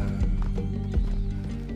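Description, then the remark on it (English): A horse being ridden: its hooves clip-clop with a few sharp thuds while a loud, drawn-out whinny runs over them, steady for under two seconds. “From the, when you're riding the horse.”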